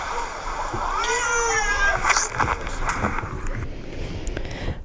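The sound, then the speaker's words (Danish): Water splashes and sloshes steadily in a swimming pool where someone is going to play with trucks, fairly loud throughout, with a brief high, wavering voice-like squeal early on. “Og nu skal jeg i swimmingpoolen og lege med lastbiler.”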